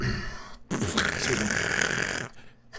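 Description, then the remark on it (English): A single forceful sneeze, a loud breathy burst that stretches out for over a second with a strained, stifled edge before cutting off abruptly into quiet background noise. “just ultra dabbed a sneeze, and it was incredible.”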